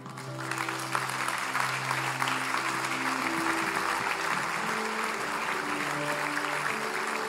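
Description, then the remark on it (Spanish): A church audience applauds God for the pastor's life, dense clapping sustained throughout, while soft sustained organ or keyboard chords hum underneath and shift pitch midway. “Que le damos otro aplauso a Dios por la vida del pastor”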